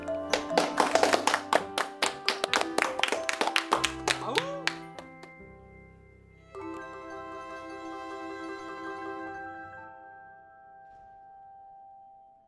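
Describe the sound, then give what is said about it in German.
Scattered hand claps ring out for about five seconds at the end of a radio play, a quick irregular patter from a few people, followed by a steady sustained tone that fades out. “Danke fürs Zuhören. Applaus.”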